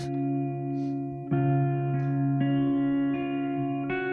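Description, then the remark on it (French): Clean electric guitar plays a slow intro, soft chords ringing out one after another with long sustain and a wash of reverb, no voices. “tu as choisi …. …. On l'écoute.”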